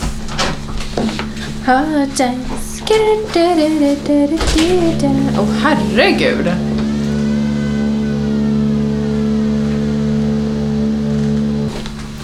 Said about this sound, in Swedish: Jag vet inte vad det är som händer på gatan nu för mig. De borrar någonting. Jäklar vad det låter. ja, det typ ekar på hela gamla väster.